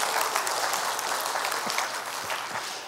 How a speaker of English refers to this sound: a little round of applause for his time.